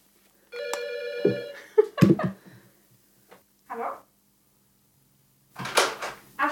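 A short electronic tone sounds, then a sharp knock and clatter like a door latching shut, followed by a few softer thuds and a rustling scrape near the end.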